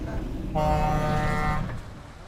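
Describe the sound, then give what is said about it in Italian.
Road traffic heard from inside a moving car driven by a woman: a steady low rumble of engine and road noise, with a single horn blaring for about a second before fading back to the hum. “la chiamata arriva mentre siamo ancora immersi nel traffico e lei, sempre guidando, affronta quella che non sa ancora essere la grana della giornata.”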